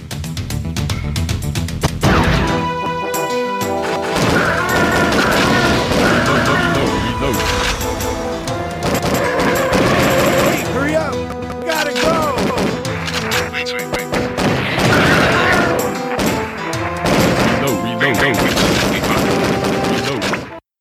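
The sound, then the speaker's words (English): Dense, loud shooter video game gunfire with rapid bursts of shots, crashes and explosive impacts layered over a busy soundtrack, continuing almost nonstop for around twenty seconds. “so that's another shooter.”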